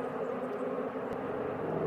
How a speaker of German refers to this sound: Der Hubschrauber kreist in einer Tour hier über mir. Vielleicht sollte ich ihn gleich auch nochmal filmen, damit ich das mit anfügen kann, denn ja, es hat schon was.